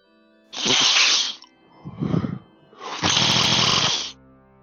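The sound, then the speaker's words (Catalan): Loud snorting slurps of mucus from someone kneeling on the other side of a lattice screen: a harsh, rasping sniff, a softer gurgling draw, then another long, noisy snort, with no talking. “Enmig del suport, no s'adona que algú s'ha genollat a l'altre cantó de la gelosia, però de seguida li arriba el brugit inconfusible d'una sorollosa xarrupada de mocs.”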